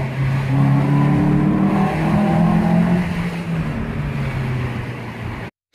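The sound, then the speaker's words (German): A small 1.6-litre Alfa Romeo car engine revs steadily, its tone rising and falling through several throttle blips. It is heard loud, with a broad rushing noise underneath, and ends abruptly. “Ich spiele mal ein kurzes Video von einem Alpha-Klang an.”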